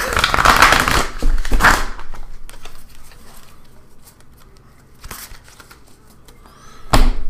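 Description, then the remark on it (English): A deck of cards is shuffled, with a dense riffling burst at the start, scattered soft clicks of cards being squared, then two more quick riffles. No one speaks. “Oops, I left out that card, so I'll put that back in we'll shuffle again. I'll give it a couple of shuffles here.”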